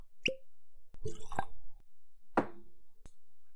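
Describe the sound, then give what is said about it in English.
Legacy Whiskey being poured into a glass: a hollow plop, a short burst of gurgling liquid, then a few sharp glassy knocks and clunks, with no talking. “I'm going to pour myself another.”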